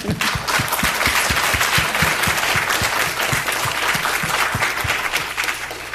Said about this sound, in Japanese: アメンと言って、神様賛美しましょう。大きな拍手しましょう。アメン。